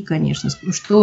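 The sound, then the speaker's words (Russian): A muffled meow from Frosya, the household cat, behind a door asking to be let in, rises briefly beneath conversation; people keep talking over it. “вот экстрамузыкальные звуки – это наша кошка Фрося за дверью, как бы просится”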